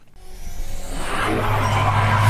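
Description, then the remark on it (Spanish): Car engines rev hard and rise steadily in pitch and loudness, a sustained mechanical roar with a steady low rumble underneath and no voices. “Los motores se revolucionan.”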